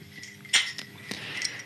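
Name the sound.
glasses clinking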